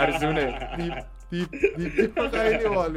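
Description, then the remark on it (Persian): A voice mimics a street vendor's squeaky toy rattle with four quick, repeated high chirping syllables, set within lively speech and light chuckling. “این صداش اینجوری بود پیت پیت جغجغه صدا میده”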